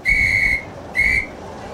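A departing train's whistle, on a train bound for Melbourne, sounds in two bright, steady blasts, a longer one followed by a shorter one, shrill and high-pitched over a low rumbling background with no talking.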